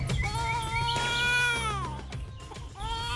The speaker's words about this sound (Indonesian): Tuh, dengar suara enggak Apa toh pak? Suara angin? Coba dimatkan toh bu. Oh, seperti suara tangisan bayi toh pak?